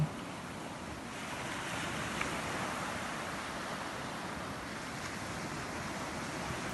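Steady rushing of ocean surf fills the whole stretch, a broad continuous wash of waves with a breezy, windy edge and no voices.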